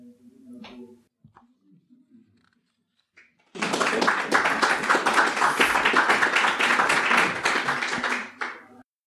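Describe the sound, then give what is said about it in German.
After a few seconds of faint, low murmuring, loud rapid knocking on a door starts up and hammers on without pause for about five seconds before stopping abruptly. “Und zack, da war es wieder. Das geheimnisvolle Klopfen.”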